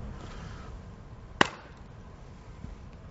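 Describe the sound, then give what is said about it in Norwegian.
A door is slammed shut as a test: a single sharp slam sounds partway through, brief and fairly muted, much less noise than usual, with a low rumbling background noise before and after. No one speaks. “Men eh, her føler jeg at vi må ta en test, sånn som eh, mange kanskje opplever eh, hjemme. At du smeller igjen døren.”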